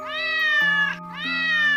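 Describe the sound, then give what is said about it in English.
Two drawn-out cat meows, one after another, each bending upward in pitch and then sliding down, moderately loud over a steady low hum, with no talking. “I see a purple cat looking at me.”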